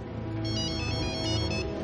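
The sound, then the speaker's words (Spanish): A telephone ringing with an electronic ringtone: a steady run of bright, layered melodic tones that keeps going without pause for about two seconds, with no one speaking. “Coge el teléfono.”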